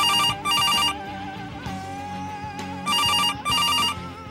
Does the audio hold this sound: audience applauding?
no